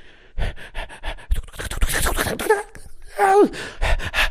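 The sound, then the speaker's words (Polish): Heavy, rapid panting of a large animal chasing someone, short rhythmic breaths, building into harsher gasps with a couple of strained whining tones near the end. No talking. “Dyszał ciężko, ale tupot był coraz głośniejszy.”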